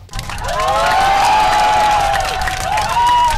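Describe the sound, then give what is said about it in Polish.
A group of airplane passengers bursts into sustained, loud clapping, with cheering and a few high whooping voices rising over the dense, steady patter of hands for a few seconds. “No klaskania nie przepadam za klaskaniem, ale wierzcie mi, że naprawdę nie tylko Polacy klaszczą.”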